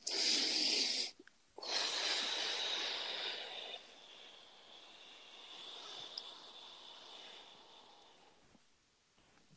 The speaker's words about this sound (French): Une respiration.